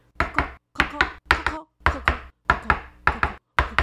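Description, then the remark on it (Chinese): A wooden mallet hammers planks in a steady rhythm of paired knocks, nailing the planks one after another around a tree trunk: about a dozen hollow, woody thuds, each pair briefly separated from the next. No one speaks. “很会爬树的松鼠兄弟拿着木锤，把木板沿着树干四周一路钉了上去。”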